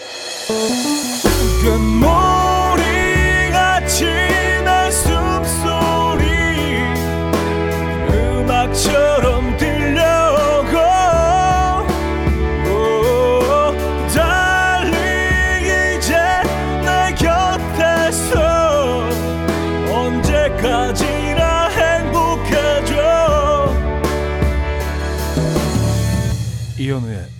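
A pop song plays continuously at full volume, with a sung lead vocal over a steady, full band backing of drums, bass and keyboards, and no talking over it.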